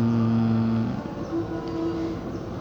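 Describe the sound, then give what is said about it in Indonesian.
A midday (dhuhr) Islamic call to prayer, a single voice holding long, sustained melodic notes that shift pitch, over steady outdoor background noise. “seperti yang lu dengar di sini udah azan azan uh, eh, duhur gue lagi di luar sebenarnya”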